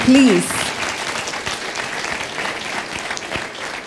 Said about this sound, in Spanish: Denle ese fuerte aplauso, por favor.